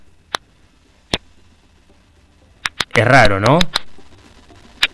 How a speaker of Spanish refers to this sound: 200 veces amplificado es el ruido de plantas que les acaban de sacar el agua. Están llorando. Es interesantísimo. Esto se hizo en la Universidad de Tel Aviv y se hacía experimentos, se ponían micrófonos ultrasensibles a las plantas